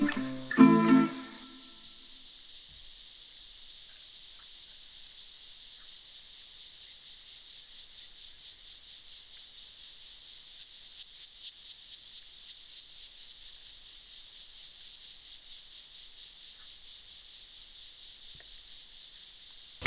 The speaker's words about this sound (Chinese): 蝉未免也叫太大声了吧？